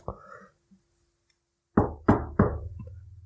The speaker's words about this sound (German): Komm, wir schrauben weiter, wir gehen nicht zur Tür. Das Klopfen wurde aggressiver.